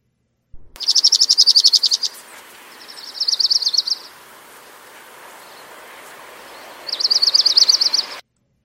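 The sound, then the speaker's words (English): A dark-eyed junco sings three rapid, even trills, each a steady buzzy run of identical notes lasting a second or so, separated by pauses over a soft outdoor hiss. Nobody speaks. “So that was the orange crowned warbler, and here again is the dark eyed junco.”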